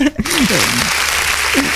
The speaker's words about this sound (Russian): А, аплодисменты.